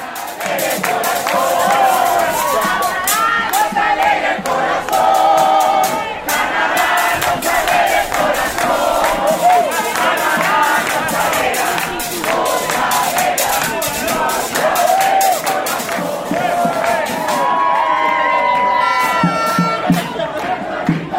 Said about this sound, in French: Tandis que les éclaireurs sont sur le terrain pour les épreuves d'athlétisme et de football, en tribune, c'est la délégation du Honduras qui met l'ambiance, encourageant à tour de rôle les jeunes de tous les pays.